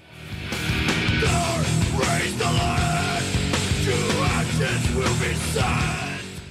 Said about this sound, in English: It's all insane, they mumble, before breaking into some screaming, probably warranted given the subject matter.